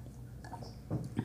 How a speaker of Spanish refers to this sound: Pero si estoy tomando desayuno a propósito, así que voy a tomar un sorbito más.